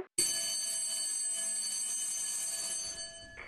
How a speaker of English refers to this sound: Uh, Shirley House uh, when someone was arriving with the doorbell that was well known to us all.